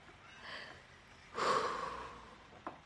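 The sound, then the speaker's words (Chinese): A single drawn-out yawn, a breathy voiced exhale that swells and then tapers off over about a second, preceded by a soft intake of breath and ending with a small click, voicing a tired construction crane going to sleep at nightfall in a bedtime story. “他疲倦的脸上带着微笑，打着哈欠，”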